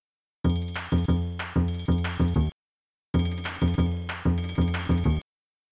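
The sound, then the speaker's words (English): A bright, ringing bell-like chiptune melody from the SNES game Donkey Kong Country 2, quick repeated notes played twice, first as it normally sounds and then with the audio filter disabled, separated by a brief silence, each phrase loud and clear with buzzy harmonics and no voices. “It opens with a ringing bell sound, and in the first example, you'll hear what it sounds like normally.”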